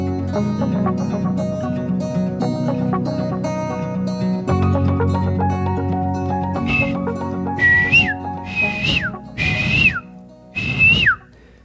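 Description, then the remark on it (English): Music plays at first, then someone whistles an imitation of a bird call: four short, breathy high notes with a quick upward and downward bend, separated by brief pauses. “I just can't get my voice that high. The whistle, the whistle is I don't know.”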